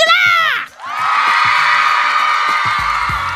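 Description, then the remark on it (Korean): A single loud shouted voice opens, then a large crowd erupts into sustained cheering and shouting, a dense wall of roaring voices that holds steady at full volume to the end. The audience shouts in response to a radio host during a Saturday dance party show. “이렇게 윽박을 질러야 윽박을 질러야 알아들으시니 좋습니다.”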